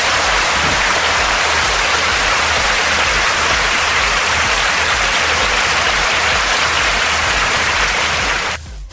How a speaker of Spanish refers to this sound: Así que vamos, le vamos a dar un fuerte aplauso a ver qué suene.